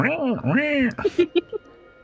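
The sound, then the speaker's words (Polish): A voice imitates a raven, giving two drawn-out, rising-and-falling croaking caws followed by four short, clipped croaks in quick succession, fairly loud, then quiet. “I widzisz, że w przedziale znajduje się drugi kruk który robi.”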